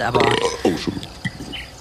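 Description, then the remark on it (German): A single short sneeze bursts out, sharp and throaty, between bits of conversational speech. “Gesundheit, hat mir mein Sohn mal eingerichtet”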